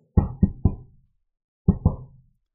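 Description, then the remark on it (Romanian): Three quick, sharp knocks on a door of the family house on Saltonstall Street, a short pause, then two more knocks in the same solid rhythm. No voices, just the knocking against silence. “Felul în care bătea la ușe Trei lovituri scurte, urmate de încă două după o mică pauză”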